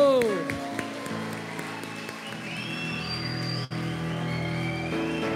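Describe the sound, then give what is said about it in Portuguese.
An audience claps steadily for several seconds, a dense wash of applause blended with sustained instrumental tones and a murmur of voices, welcoming people who are attending for the first time. “Olha aí, ó, um aplauso.”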